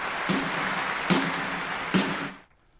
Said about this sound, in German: Das war mal ein knackiges Horoskop. Ja. Da gibt es auch Applaus.